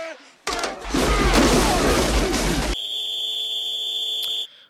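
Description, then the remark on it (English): A burst of dense, crackling noise gives way to a loud, steady shrill whistle blast, blown to start a timed segment, held for about two seconds before cutting off. “Okay, if it's your first time listening or watching, we have a deal where we start on the whistle, end on the buzzer.”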